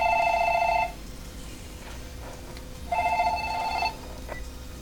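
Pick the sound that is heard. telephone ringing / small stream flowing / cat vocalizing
telephone ringing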